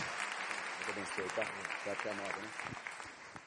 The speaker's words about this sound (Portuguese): Dê mais um forte aplauso ao Senhor Jesus. Se é para Ele, pode ser com mais amor, com mais veemência.